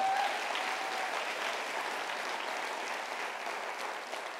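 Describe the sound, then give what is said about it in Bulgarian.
A church audience applauding the faithful women of the church, a dense wash of many hands clapping at an even loudness for several seconds, tapering slightly toward the end. “Можем ли да дадем едно мощно дарение на ръкопляска на вярната?”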